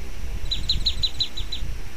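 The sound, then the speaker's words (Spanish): A small bird chirps in a quick, evenly spaced series of about seven high, bright notes over a low background rumble. “Pajarito.”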